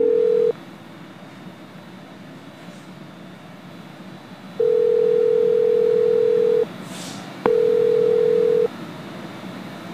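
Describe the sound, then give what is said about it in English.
A telephone ringback tone on an outgoing call: a steady, moderately loud electronic tone sounding in long bursts separated by gaps, over faint line hiss, with no voices. “it's ringing.”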